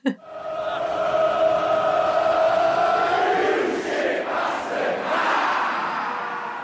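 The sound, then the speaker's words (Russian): A large crowd of football fans holds one long, loud drawn-out collective yell for several seconds as the opposing team's goalkeeper takes a goal kick, then it swells into a ragged, rowdy shout insulting him as a bad goalkeeper. “есть традиция, что когда вратарь чужой команды выбивает мяч от ворот, угу. они ему кричат, в общем, оскорбление, которое я не буду, не буду здесь цитировать, но это, в общем, такое они...”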